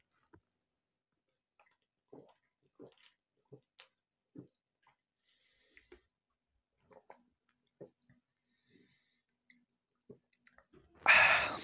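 Someone drinks a glass of water: a slow series of soft gulps and wet mouth clicks, irregularly spaced, ending with a brief louder rushing burst.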